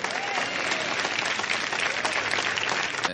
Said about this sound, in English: The big applause line there.